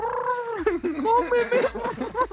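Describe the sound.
A man dressed as a pigeon imitates a pigeon's cooing: throaty, warbling coos run together in a quick, continuous stream, fairly loud.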